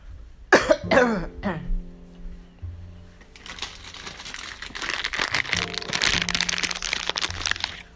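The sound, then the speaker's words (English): A few sharp coughs burst out in quick succession near the start, followed by several seconds of steady crackling, crinkly rustling noise. “I gotta get me one of these uh, ah, cough drops.”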